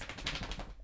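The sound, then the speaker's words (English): A dachshund shakes itself off, its ears flapping in a quick run of soft, papery slaps over under a second. Fairly quiet, with no voices. “Uh, if you could hear that on the audio, that was the sound of a sausage dog done with our shit.”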